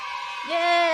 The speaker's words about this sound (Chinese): 有个欢呼的仪式。